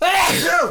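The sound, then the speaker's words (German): A single loud sneeze bursts out in under a second, a sharp breathy explosion with a rising then falling voiced tone, with no talking around it. “Oh, Junge, Junge, Junge. Gesundheit.”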